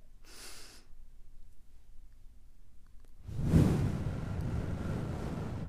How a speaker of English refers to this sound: let's all take a moment to breathe deeply. We're going to hold our breath for a few seconds and exhale through the mouth.